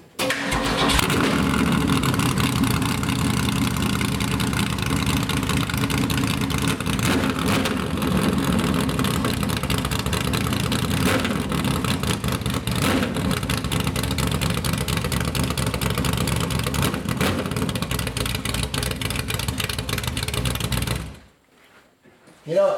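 A Cobra sports car, an American car with a Ford V8 engine, starts and rumbles at a loud, steady idle with throaty revs, running for about twenty seconds before cutting off abruptly.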